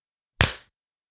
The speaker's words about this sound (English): So what do you say we clap it out? I'd love to. Let's do it. One, two.